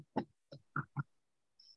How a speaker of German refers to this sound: Und jetzt klopft es bei mir an der Tür.